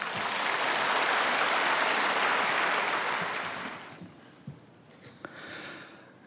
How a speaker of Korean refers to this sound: 나올 때 박수로 환영하겠습니다.